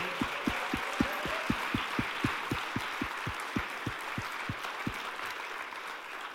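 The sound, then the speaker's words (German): A large church audience in Gießen gives God a big round of applause, clapping loudly and steadily in a dense wash with a regular low thumping beat underneath for most of it, the beat stopping near the end while the applause carries on. “Wenn du begeistert davon bist, lass uns nochmal Gott einen richtig großen Applaus geben.”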